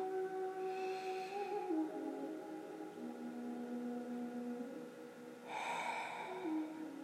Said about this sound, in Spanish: Dos veces más, inhalo. Exhalo. Inhalo.